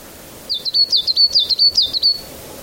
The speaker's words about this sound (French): Alors merci pour ce joli petit bruit d'oiseau.